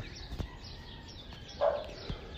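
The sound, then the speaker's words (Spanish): Faint birdsong at dawn in a quiet outdoor background, with one brief, slightly clearer chirp partway through and a few soft clicks, no voices present. “Pues gracias infinitas por estar escuchando estas disertaciones a estas horas de la madrugada con los pájaros de fondo.”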